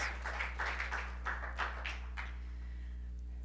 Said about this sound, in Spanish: Denle un aplauso al Señor, hermanos. Gloria a Dios.